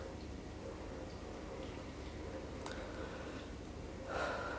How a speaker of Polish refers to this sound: Także zamknijcie sobie oczy, usiądźcie w wygodnej pozycji z wyprostowanymi plecami i przenieście uważność do swojego oddechu. Spokojny, głęboki wdech i spokojny, głęboki wydech.